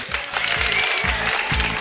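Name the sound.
applause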